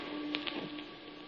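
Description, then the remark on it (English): Steady, soft rain hisses evenly throughout, with a couple of sharper drips near the start and a faint electrical hum underneath; no one speaks. “And there I made my peace with the city that lay behind the swirling fog and the rain.”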